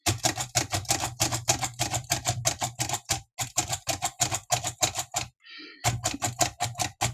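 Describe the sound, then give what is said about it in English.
A Perkins Brailler embossing braille characters along a page of paper, a steady run of sharp, rapid mechanical clacks with a brief pause before the keystrokes resume, loud and without speech. “So now I can actually write along my page”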